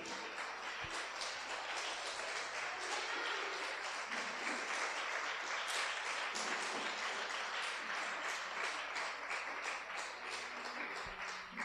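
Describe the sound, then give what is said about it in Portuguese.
An audience bursts into sustained applause for the Lord, a dense, steady wash of many hands clapping at an even loudness for the whole stretch, with no voices standing out. “Pode aplaudir o Senhor.”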